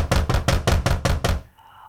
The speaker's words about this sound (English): So the servants knocked on Gomeye's door